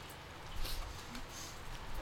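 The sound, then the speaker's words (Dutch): Light rain falling outdoors, a soft continuous hiss with faint scattered pattering drops, fairly quiet and steady throughout with no voices. “Een mistroostige bedoeling hoor, hier zo in de regen.”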